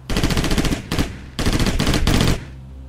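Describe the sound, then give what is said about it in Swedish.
Rapid bursts of gunfire from an automatic weapon, several sharp volleys of fast, evenly spaced shots with short gaps between them, loud, then a brief fading echo. A man is shot 13 times in the back, outdoors on damp ground in the autumn dark. “Han är skjuten med automatvapen. 13 skott i ryggen.”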